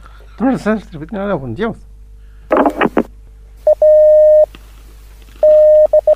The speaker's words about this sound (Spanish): Ah, ahí está llegando, llegando el telegrama. Lo mandó un código Morse nomás.